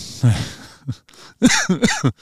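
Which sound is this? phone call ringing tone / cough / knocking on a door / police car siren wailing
cough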